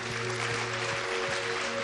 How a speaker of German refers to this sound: Lass uns Jesus mal einen Applaus geben.